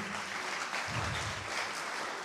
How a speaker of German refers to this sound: Wunderbar, ja, das ist ein Applaus verdient.